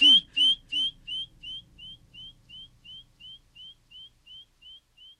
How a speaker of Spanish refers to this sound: Vamos a suponer que el murciélago emitiera un sonido que sí pudiéramos oír. Escucharías el sonido y luego el eco.